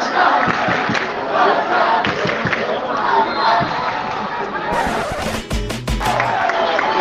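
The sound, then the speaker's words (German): A large football stadium crowd roars and chants continuously, a dense wall of voices, after a 2-2 equaliser in the 66th minute of a match between Barça B and Castellón, with sharp bangs or claps bursting through near the end and a low thump. “Bisher haben die rund 200, 300 Fans eben aus Castellón für ganz gute Stimmung gesorgt. Aber jetzt hört ihr, wer hier jetzt tonangebend ist.”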